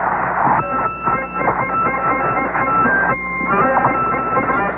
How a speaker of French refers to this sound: Voilà, donc ça c'est de l'harmonica.